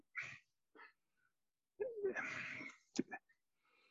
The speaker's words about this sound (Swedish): det finns, eh, jag håller på att bläddra lite här va